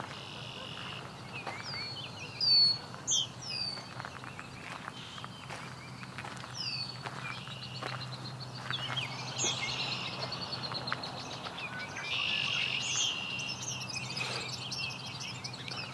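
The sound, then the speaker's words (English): A female Baltimore Oriole sings short, high chirping phrases at intervals, fairly faint, over a steady outdoor hum with occasional soft footsteps or clicks. “Look to both be female. One was singing.”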